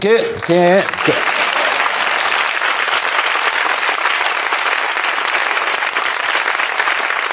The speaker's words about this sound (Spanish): Ah, ¿Quién ha arrancado el aplauso? ¿Ha sido tu boli?